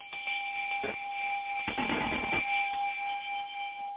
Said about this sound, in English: You get the first time caller's bell. Welcome, welcome.